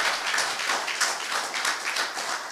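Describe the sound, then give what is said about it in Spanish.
An audience claps in praise of God, a dense, steady wash of hand claps with a loose rhythmic pulse, fairly loud and sustained throughout, with no clear talking over it. “Dele palmas al que vive, sea bendito su santo nombre.”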